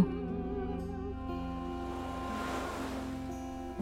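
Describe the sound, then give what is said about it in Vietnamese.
Ocean waves on a beach in the morning: a soft wash of surf swells up and recedes once, steady and moderately quiet, blended with sustained tonal music humming underneath throughout. “Mỗi sáng tôi đi dạo biển, ngắm những con sóng đang trôi ngoài xa.”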